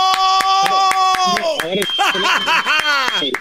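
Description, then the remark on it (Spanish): Steady, brisk clapping at an even rhythm runs through the whole clip, with laughter and voices over it, including a high sustained tone near the end. “hay, que aplaudirle, hincándonos”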